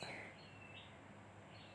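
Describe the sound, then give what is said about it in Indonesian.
Faint birds chirping in thin, high tones, a few short calls and drawn-out whistles over a steady low hiss, with no one talking. “maaf maaf suara burung menemani saya hari ini”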